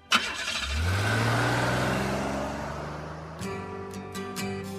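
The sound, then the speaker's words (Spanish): A car engine cranks and catches, its hum rising as it revs and drives off, then shifting to a new steady pitch partway through. No one speaks. “Pero, eh, por favor, eh, préstame el carro para visitar a unos amigos.”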